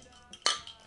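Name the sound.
glasses clinking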